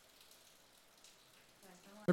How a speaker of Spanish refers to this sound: Espero que les gusten el sonido de lluvia que tenemos ahora mismo. Yo la quito.